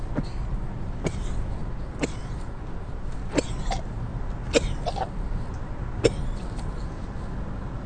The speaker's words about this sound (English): I have a little gas, but as I'm coughing, I thought I was gonna fucking blow some gas